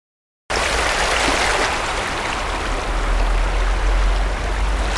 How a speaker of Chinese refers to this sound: 您现在听到的声音是杜笃之杜哥，电影音效大师为我们带来的沙滩浪声，它是比较小的浪，刷刷刷刷刷。